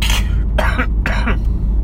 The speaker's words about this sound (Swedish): hosta lite